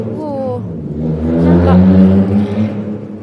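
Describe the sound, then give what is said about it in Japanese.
A car rumbles past on the street, its engine swelling to a loud peak around the middle before fading slightly, with a low droning hum throughout and a voice briefly audible at the start. “ごいね、車の音が”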